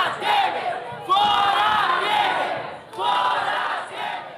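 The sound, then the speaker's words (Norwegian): A large crowd of protesters across Brazil chants "Fora Temer" (Out with Temer) in unison, demanding the president's resignation: loud rhythmic shouted phrases repeating in three bursts with brief dips between, voices blending into a dense roar. “Ut med temer, roper demonstranter over hele Brasil.”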